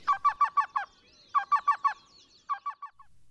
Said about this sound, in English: The spongy moth caterpillar outbreak means that we may get a chance to see two usually shy and relatively hard to see birds the black billed cuckoo